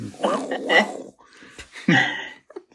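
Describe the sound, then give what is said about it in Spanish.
A voice imitates a rumbling stomach growl in two drawn-out, throaty bursts, fairly loud, ending with a few soft clicks. “Uy, uy, uy, madre mía, ya, ya se está despertando aquí el rugido del estómago.”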